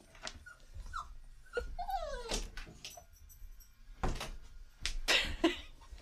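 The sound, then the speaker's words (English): A dog whimpers and whines in several high, wavering bursts, mixed with faint knocking and shuffling sounds like a door or cupboard being bumped. “Uh, dog, p- stop, please.”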